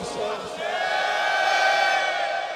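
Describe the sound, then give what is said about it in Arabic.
A large crowd roars together in one loud, sustained collective cry on the night of Ashura, many voices blending into a steady swell that holds strong for the whole stretch without letting up. “أين الصارخون في هذه الليلة صرخة مدوية عالية”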